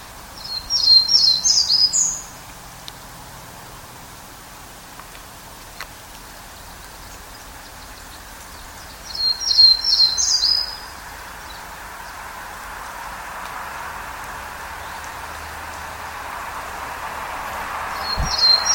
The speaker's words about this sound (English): Uh, so I'll go ahead and play a recording of a Townsend's warbler that I recorded here in Sitka.